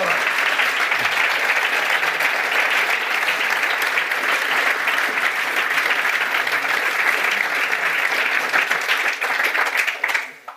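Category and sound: crowd, audience applause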